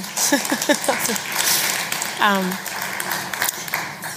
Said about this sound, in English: Oh, thanks. You can clap.